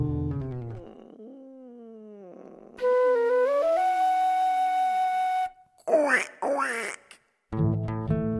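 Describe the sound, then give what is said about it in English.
A voice imitates a duck with a couple of loud, nasal quacks, following a long drawn-out vocal tone and a low groaning sound. “No, George. Ducks go quack quack.”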